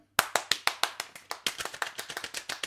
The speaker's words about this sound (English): I'm going to put my microphone down. I'm going to give them a little round of applause.